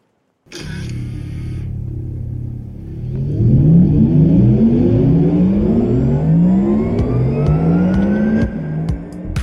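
A Porsche sports car engine starts with a burst and then revs hard, climbing through repeated rising sweeps as it accelerates through the gears, loud with no talking.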